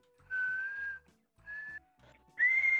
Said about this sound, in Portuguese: Assobia